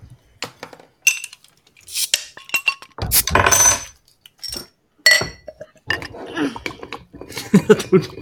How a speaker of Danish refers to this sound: Ja, ja, du drejer låget af dit, af dit glas, kan jeg se. Så drejer det på igen.